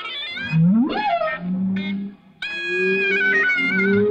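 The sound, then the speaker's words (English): Humpback whale song mixes with a live clarinet broadcast through an underwater speaker and picked up by an underwater microphone: a swooping, rising whale cry, then steady sustained clarinet notes over low moaning tones. Both sound muffled and reverberant, with no talking. “And you hear this duet from down there, live clarinet and whale.”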